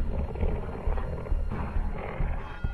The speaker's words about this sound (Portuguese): E, mais ao fundo, no canto nordeste da praça, você enxerga dois lobos bem feios e maiores do que o normal se banqueteando dos restos de alguma carcaça no chão.